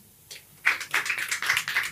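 A small live audience breaks into scattered applause, a burst of overlapping hand claps that starts abruptly and continues unevenly, moderately loud with no talking.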